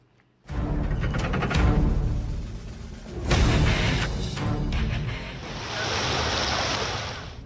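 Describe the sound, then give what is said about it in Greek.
Loud ocean surf rolls in and breaks in several broad, hissing surges at a beach where people seek coolness during a heatwave, with a steady rush of wind buffeting the microphone throughout; no voices stand out. “Στι παραλίε αναζητούν δροσιά οι πολίτε, αλλά όσοι βρίσκονται στι πόλει προσπαθούν να αντιμετωπίσουν τον καύσωνα.”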